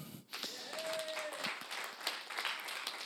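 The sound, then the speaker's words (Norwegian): An audience breaks into sustained applause for Sakkeus (Zacchaeus) during a Norwegian-language sermon, a dense wash of many hands clapping at steady volume for about three seconds, with a brief thin tone gliding through early on. “En applaus til Sakkeus.”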